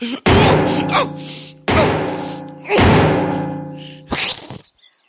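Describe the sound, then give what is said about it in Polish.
Four heavy thumps of someone jumping on a roof land about a second apart, each loud impact followed by a long, humming resonant ring that fades before the next. “Jak tak skaczę po tym dachu, to mnie telewizor śnieży.”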